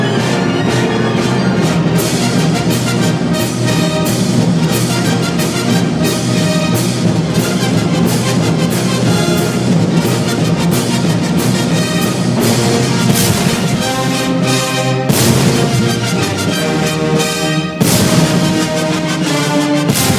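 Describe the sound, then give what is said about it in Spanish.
A loud, full orchestral finale plays continuously, dense with sustained brass and strings, with ringing bells and booming fireworks blasts punctuating the climax in celebration of the Russian victory. “y finalmente suenan campanas y fuegos artificiales que celebran la victoria rusa.”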